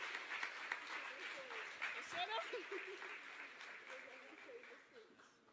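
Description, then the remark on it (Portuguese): A crowd of people applauding the Lord for a family after a prayer of blessing, a dense, continuous patter of many hands clapping that holds for several seconds, with scattered voices and cheers mixed in and tapering slightly at the end. “Você aplauda o Senhor por essa família, em nome de Jesus.”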